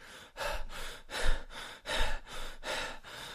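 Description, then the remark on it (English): A voice imitates heavy, out-of-breath panting from climbing an ascent at about six to seven thousand feet of elevation: quick, rhythmic in-and-out gasps, about six breaths in a few seconds, moderately loud, with no talking. “I'm like kind of antsy, a little nervous, and uh, man, I ran out of breath fast, and I'm trying not to let my guide hear me like”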